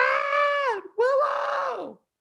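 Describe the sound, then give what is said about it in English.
A loud mock scream: a voice lets out a drawn-out wailing cry that dips and falls in pitch, breaks briefly, then trails off in a second strained howl. “Oh my god, I'm probably just gonna be like screaming and uh, crying and just like ah!”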